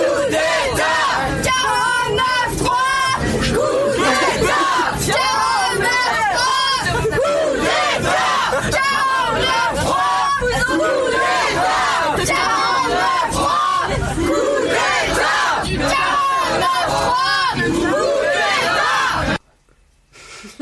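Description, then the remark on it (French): A large crowd at a protest against the labour law chants loudly in unison, voices rising and falling in the steady rhythmic slogan "Coup d'État 49.3" with shouting throughout, continuous for about nineteen seconds before cutting off abruptly. “J'ai un petit peu de son, si vous voulez, de la manif.”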